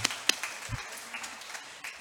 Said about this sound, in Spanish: Un aplauso para mis amigos están desvelados y tienen que